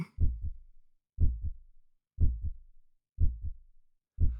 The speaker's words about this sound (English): The heartbeat and breathing have different rhythms. The heart normally beats 60 to 70 times per minute, while the respiratory rate is about one fifth of that.